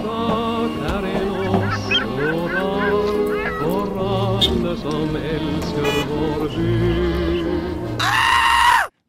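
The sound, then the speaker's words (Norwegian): Honking, squawking tones over a low musical drone give way near the end to a loud, shrill scream lasting under a second before the sound cuts off abruptly. “Nei, skriket var egentlig litt passende.”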